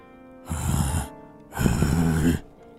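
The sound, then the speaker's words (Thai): A voice performs two drawn-out, breathy groaning moans, fairly loud, the second longer and more strained, separated by a brief pause, as a monk answers with a groan while his body begins to tremble. “ระจรูนตอบด้วยเสียงคราง ตัวเริ่มสั่น หัวเข่าเต้นฟาดกระดานอยู่ปังปัง”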